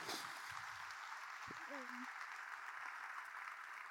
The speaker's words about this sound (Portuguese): Quem pode dizer amém? Quem louva a Deus? Quem pode dar um aplauso a esse Deus maravilhoso?